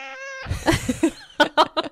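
A cat lets out a drawn-out, tonal meow, followed by a rapid string of shorter, rougher yowls and cries, loud, with no one talking.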